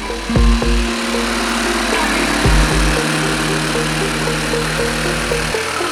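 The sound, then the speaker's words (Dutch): A power tool motor drones steadily in a carpentry workshop where two carpenters are at work, its humming pitch shifting a couple of times, with two dull knocks and a constant wash of machine noise throughout. No one speaks. “En eh, bijvoorbeeld ook een timmerwerkplaats zijn nu twee timmermannen aan de gang.”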